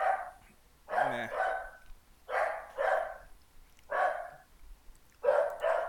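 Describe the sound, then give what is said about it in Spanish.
A neighbour's dog barks repeatedly in rhythmic pairs of sharp, mid-pitched woofs, clear, with short pauses between bursts and no one talking. “¿De qué me sirve odiar a los animales si de todos mis vecinos los van a tener por mí?”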